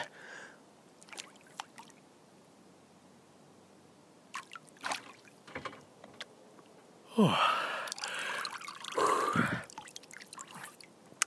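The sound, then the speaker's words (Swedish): Soft drips and small water sounds on a quiet, misty lake in October, then a head plunges into the cold lake water with a loud splash and sloshing, followed by sharp gasping breaths for a few seconds. “Jag måste doppa huvudet en gång till.”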